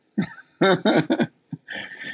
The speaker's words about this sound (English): That's not my dog, I promise.